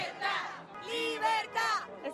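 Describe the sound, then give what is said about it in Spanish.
A crowd of dozens of Cuban protesters shouts together on Calle 8, calling for change on the island, loud overlapping voices rising in repeated bursts like chanted cries, with brief dips between the swells. “Estamos en la conocida calle 8, donde decenas de cubanos se reúnen pidiendo un cambio en la isla.”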